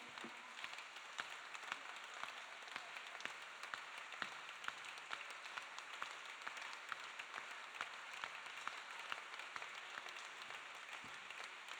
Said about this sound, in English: Keep, keep on clapping. Keep on clapping. Clap. Keep clapping. Keep clapping. Keep clapping.